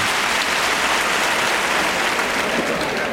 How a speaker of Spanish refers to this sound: Gran par de Antonio Chacón que ahora saluda a Montera en mano la fuerte ovación del público.